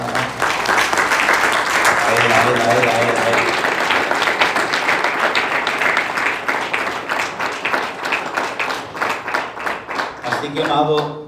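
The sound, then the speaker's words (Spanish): An audience bursts into loud, sustained applause for God after a prayer, gradually thinning into scattered, rhythmic claps before fading; a voice speaks over the start and again briefly at the end. “Dale un aplauso grande a él.”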